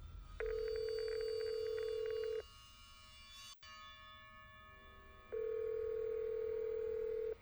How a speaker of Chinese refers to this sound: 电话拨打过去了。